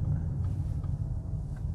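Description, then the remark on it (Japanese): Steady low engine drone and road rumble inside a car moving during a work trip, with a felt interior temperature of about 45 degrees; constant and fairly loud, with faint higher hiss and a few soft bumps. “車内の気温はおよそ45度、かっこ体感気温です。”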